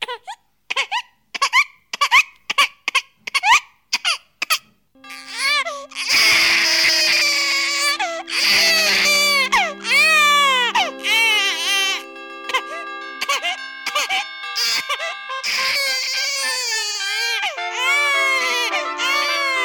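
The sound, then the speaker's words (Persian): A newborn baby crying: a run of short, choppy gasping sobs, then a loud, sustained high-pitched wail that keeps rising and falling, with layered voices and no speech. “یه دفعه صدای جیغ و جیغ شنیدم”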